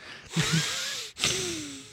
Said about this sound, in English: Can you stop with the mouth breathing?